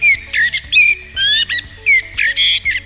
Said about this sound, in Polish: pan Kos, a właściwie to chyba pani Kos.